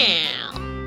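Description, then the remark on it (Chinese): A storyteller imitates a cat, voicing the thief cat Boss Cat in a children's story, with a single drawn-out, loud "meow," its pitch sliding down and then holding steady for under a second. “我看啊，我今天还是去蔬果店偷一颗白菜吃好了。喵！”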